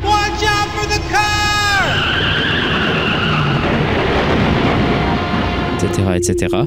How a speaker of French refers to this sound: Cliquer sur chacune vous donne soit des descriptions humoristiques de décès, d'autres trucs moins humoristiques, un clip audio suggérant un accident de voiture.